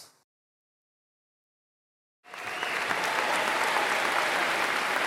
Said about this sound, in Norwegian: Ah, Der er applausen.